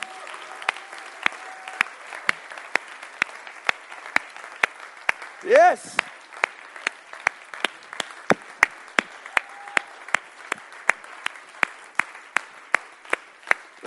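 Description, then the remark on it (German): An audience breaks into sustained applause for the volunteer teams (service, bistro, welcome and kids teams and those praying), many hands clapping in a dense, steady patter, with a single voice shouting out briefly partway through. “Können wir den Leuten mal ganz kurz mal einen Applaus geben und ähm,”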